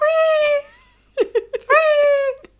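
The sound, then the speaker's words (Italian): A voice imitates the whining moan of a burning log: a long, steady high-pitched whine, a few short choppy vocal bursts, then a second drawn-out whine, close and fairly loud. “Comunque, il ciocco sembra gemere mentre viene avvolto dalle fiamme che potrebbe anche essere un effetto del fumo che sì, passa.”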